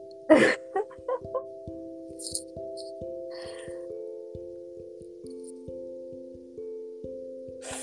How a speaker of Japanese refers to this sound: 音が入っちゃうかもしれないけど、ちゃんと鼻かんでいいよ。